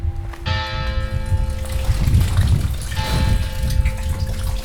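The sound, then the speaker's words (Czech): Water runs and gushes steadily from a spring, a continuous splashing rush, while sustained ringing bell tones sound over it in two strokes. “przed nami je posłatna studanka a je to jedna z 27 kaplí, které kdysi tady byly.”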